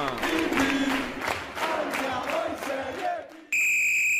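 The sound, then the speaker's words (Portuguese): A stadium crowd of more than 15,000 fans at the Alberto Bralha stadium roars and chants, celebrating Modena's promotion from Italy's Serie B. Voices swell in waves before a loud, steady high-pitched horn blares over the last second. “Ótima jogada, excelente o lance do brasileiro Paulo Adzi festa dos mais de 15 mil torcedores no estádio Alberto Bralha.”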